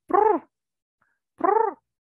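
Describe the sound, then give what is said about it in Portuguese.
A person imitates the coo of the pigeons living on the roof of their two-storey house, with two short, throaty, arching calls separated by a brief pause, voiced clearly with no other sounds around them. “E eis que começa uma pomba a fazer aquele barulhinho dela.”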